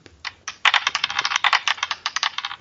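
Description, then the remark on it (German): Dice being rolled to choose a page: a quick run of sharp, bright clicks and clatters, irregular and fairly loud, lasting about two seconds with no voices. “Genau, wir würfeln uns jetzt zur richtigen Seite.”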